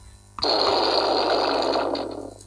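A loud, buzzy fart noise from a push-button toy fart machine, which plays a different fart with each press, blasts suddenly and holds steady for about two seconds before tapering off, with no talking.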